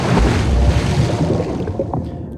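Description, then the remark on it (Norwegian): A person rows a boat away from the shore through water, with steady sloshing and splashing that eases off slightly toward the end. No voices are heard. “Vi hopper i båten og dreg ifra strand. Vi seter oss på tofta og ror og ror, og snart er vi der som fisken bor”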